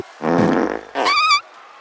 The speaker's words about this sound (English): What the hell was that? I just farted. What's the big deal?